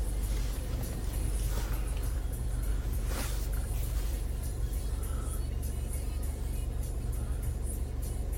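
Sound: car interior road rumble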